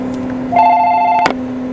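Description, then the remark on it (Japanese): A shop's landline telephone rings with a steady electronic tone for about a second against a constant background hum, then cuts off abruptly with a click. “まさかの店の電話が鳴ったと思ったら愛する妻の”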